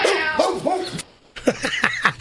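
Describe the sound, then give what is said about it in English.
Rex, a studio pet dog, yips and barks in quick, high-pitched, fairly loud bursts, breaking off briefly before a rapid run of several more sharp yaps. “Did you hear Rex, our studio pet?”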